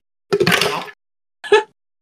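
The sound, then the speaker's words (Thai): Malee juice, the first glass, and ice are poured into a fruit-juice blender, a close, clattering splash lasting under a second, followed by a shorter second pour with rattling ice. No one speaks. “ตอนนี้กำลังเทน้ำมาลีนะครับผมซึ่งเป็นแก้วแรกนะครับ ลงไปเครื่องปั่นน้ำผลไม้พร้อมน้ำแข็งครับ”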